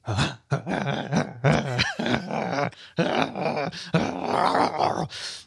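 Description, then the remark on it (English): A person imitates their dog Camila growling and grumbling as if wrestling with a toy: a loud run of throaty growls and whiny yips in short bursts with brief pauses. “you just sound like a dog wrestling with a toy.”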